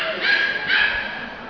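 A dog barks twice in quick succession, sharp, mid-pitched yaps, with a faint steady background hum and no talking.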